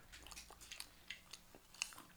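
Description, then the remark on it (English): Wet, open-mouthed chewing of a snack with crunchy bites, repeating irregularly about every quarter second, loud with no talking. “And then just make sure, close your mouth when you chew.”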